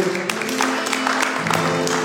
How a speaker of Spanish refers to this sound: Amén y amén. Un aplauso, Señor.